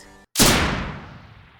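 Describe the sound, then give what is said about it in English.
A single loud gunshot cracks out after a brief moment of silence and echoes away for over a second, preceded by a soft humming tone. “And as she comes back out on the front porch, she hears a gunshot”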